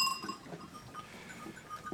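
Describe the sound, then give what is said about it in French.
Small sheep bells, one worn by each ewe, clink and jangle irregularly inside a sheepfold, several tinkling at once amid the shuffling of the sheep, moderately quiet. “Mais, j'aime bien, euh, j'aime bien ce bruit dans la bergerie, C'est le bruit des cloches qui reste toute l'année.”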